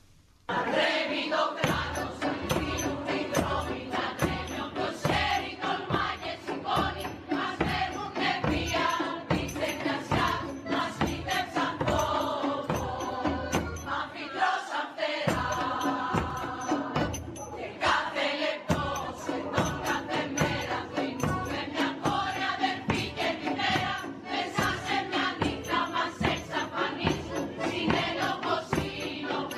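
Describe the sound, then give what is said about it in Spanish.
A large crowd of women and girls in the streets, demanding their rights, chants a feminist anthem in Greek in unison, voices loud and rhythmic over steady pounding percussion, the shouted anthem sustained throughout with brief pauses between phrases. “Pero mira, creo que fue una semana muy bonita, viendo ya la participación de, todas estas mujeres, de muchas niñas en las calles, pidiendo y exigiendo lo que debería de ser sus derechos.”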